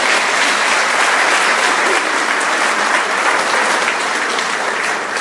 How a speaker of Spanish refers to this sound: Un aplauso al Señor por el Ministerio de Música.